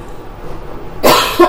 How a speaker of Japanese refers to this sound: すいませんね途中にちょっと咳が入るかもしれません